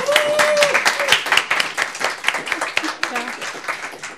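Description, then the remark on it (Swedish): An audience applauds steadily for about four seconds, many hands blending into a dense, crackling patter, with a short high whoop near the start and scattered voices mixed in. “Stor applåd.”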